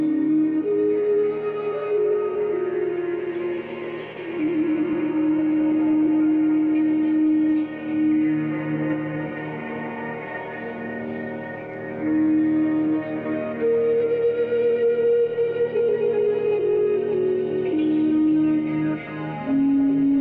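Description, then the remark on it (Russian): Sustained, layered musical tones drift and overlap at a steady moderate level, with echoing delay repeats smearing each note into the next for about twenty seconds, no voices. “Причем я еще э, э запустил всякие задержки. То есть э, э, задержки, ну, как эхо, да?”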